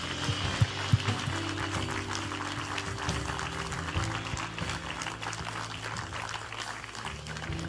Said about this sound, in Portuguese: Podemos dar uma salva de palmas a todas estas pessoas que tomaram uma decisão por Jesus.